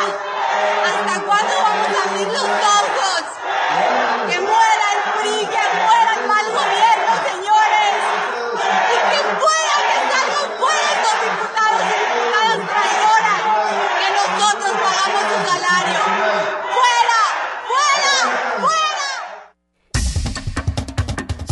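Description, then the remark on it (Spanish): A large crowd of protesters in the capital of Quintana Roo, heard in the distance, chants slogans against the bad government in loud, continuous unison, many voices blending into a dense, rhythmic roar that carries on for about twenty seconds before cutting off abruptly. “estaban cantando la capital de, Quintana Roo, ¿no? se escuchaba a lo lejos, ¡Che tu mal! ¡Che mal! Que muere el mal gobierno”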